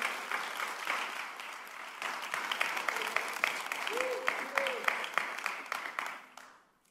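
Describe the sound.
Audience applause: a dense, steady patter of many hands clapping for several seconds before fading out, with a few faint voices mixed in.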